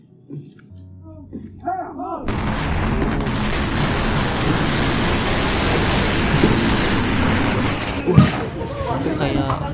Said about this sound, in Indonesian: 100 kg cuy bahan petasan dimusnahkan diledakkan langsung 100 kg bubuk mesiu dan puluhan ribu petasan ini musnahkan tim Gegana dengan cara diledakan di lahan yang kosong